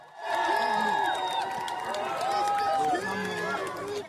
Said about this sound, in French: Peu avant 14 h il fait son retour au palais de Buckingham sous les ovations.